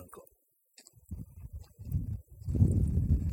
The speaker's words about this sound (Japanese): 電車の音が聞こえますね。